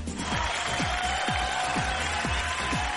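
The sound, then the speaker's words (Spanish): Steady crowd applause and cheering for a Eurodance special fill the whole clip, a dense hiss of clapping over a regular thumping bass beat that pulses roughly twice per second. “Fuerte el aplauso.”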